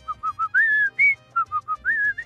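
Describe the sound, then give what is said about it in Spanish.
Someone whistles the melody of the folk song La Cucaracha: bursts of three quick short notes, each followed by longer held notes, clear and bright with no talking. “Pero la cucaracha, vos le estás cantando, le estás dando voz la forma, la, la, la, la, la, la, la.”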